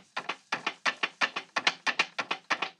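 A chair is banged against a floor over and over, producing close, sharp wooden knocks in a quick, steady rhythm of paired hits, with no voices.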